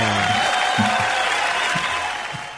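A steady wash of dense applause holds at an even loudness for the whole stretch, with brief low vocal sounds popping up faintly beneath the clapping.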